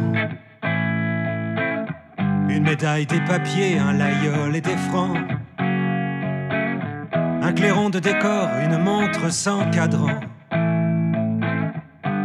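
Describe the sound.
A French-language song with a gritty, distorted electric guitar playing steadily beneath a lead vocal, the band loud, with brief pauses between sung phrases.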